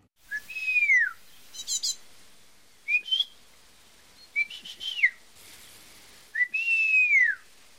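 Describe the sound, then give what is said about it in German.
An old bird breeder in the French town of Saint-Hilaire whistles to call his birds for feeding: a series of clear, sliding calls, some long and swooping downward, others short chirpy bursts, spaced out with brief pauses in a quiet setting. “Wenn er seine Vögel zum Füttern ruft, dann klingt das so.”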